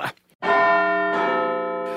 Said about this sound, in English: What's that I hear? It's the chimes of Big Ben, which means only one thing on this delicious show. Uh, it means that it is tea time.